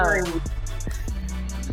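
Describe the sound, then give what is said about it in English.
A loud stomach growl into a microphone: a gurgling, descending tonal groan at the start, then a low rumbling churn with a few soft pops, with no talking. “oh, my stomach just growled. That was my stomach yelling into the mic just now.”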